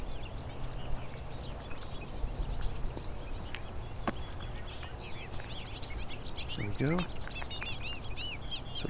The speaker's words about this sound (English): bobolinks?